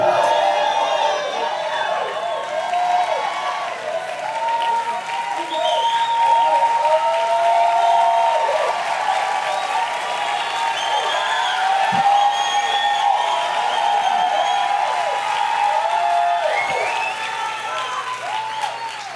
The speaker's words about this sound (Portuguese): Eu quero hoje nesse culto ouvir uma voz alta, sobremaneira eu quero ouvir brados de júbilo e brados de vitória hoje aqui.